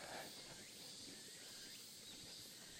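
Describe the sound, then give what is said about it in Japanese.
Faint, steady insect chirring drifts through a quiet outdoor ambience in the mountains of Sado, with a soft, continuous hiss, unbroken for the whole stretch, with no voices present. “佐渡のね山の中からお送りしておりますので、えー、鳥の声虫の声も一緒にお楽しみください水が流れる音なんかもね聞こえるかなと思います”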